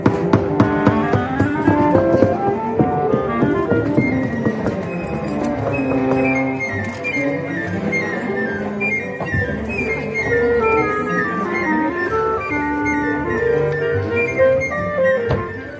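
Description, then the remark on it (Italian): A cacophony of orchestral instruments warming up in the orchestra pit of a theatre before a performance, many overlapping notes, runs and sustained tones played at once in no shared rhythm, fairly loud and continuous throughout, with no talking. “Qui avete sentito invece gli altri assoluti protagonisti dello spettacolo, nella buca dell'orchestra si iniziano infatti a scaldare gli strumenti e il valzer dei suoni aumenta di minuto in minuto.”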